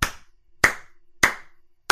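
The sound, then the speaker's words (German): Sharp hand claps ring out one at a time at a slow, even pace, about four in all, each a crisp smack with a brief decay and silence between, no voices. “Dafür klatsche ich einmal.”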